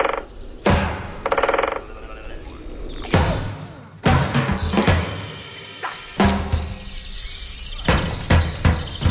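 A dense dawn chorus of many birds singing at once, overlapping chirps and calls layered in a busy, continuous wash of sound with no one talking.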